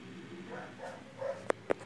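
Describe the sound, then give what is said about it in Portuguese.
A dog gives two quick, sharp barks in succession near the end, fairly loud, after a stretch of faint, murmuring background sound. “Cachorro, cala a boca aí, ô!”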